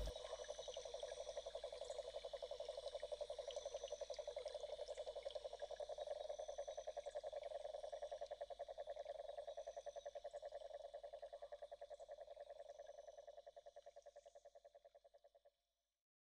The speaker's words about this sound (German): Uns gefällt die braune Kröte. Wenn es sie nicht gäbe, wer sollte dann im Wiesenkonzert die Pauke schlagen?